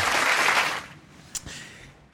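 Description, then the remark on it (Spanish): A brief burst of applause for the day's guest, dense and loud for under a second, then quickly tapering off into a quiet hiss, with a single sharp click near the end. “y ahorita se me olvidó un aplauso para.”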